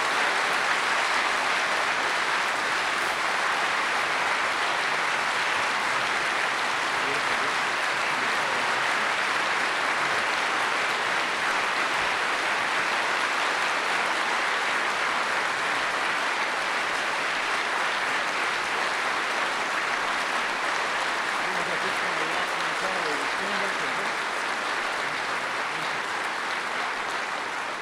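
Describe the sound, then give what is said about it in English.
A large crowd gives a sustained standing ovation at Westminster Presbyterian Church, applauding steadily for nearly half a minute, a dense, unbroken roar of clapping that stays loud and even throughout, with no voices rising above it. “For those of you listening on the radio, we just had a sustained standing ovation here at Westminster Presbyterian Church.”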